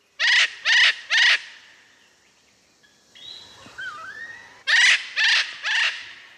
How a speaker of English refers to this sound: In this bird species, the females kind of have the power. Do you know which bird we're talking about? Um, none other than the absolutely stunningly beautiful eclectus parrot. Absolutely uh, unmissable in the rainforest. Let's hear it.